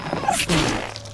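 A single sharp, explosive sneeze bursts out, loud and breathy, with a brief intake just before it and a fading rush of air afterward.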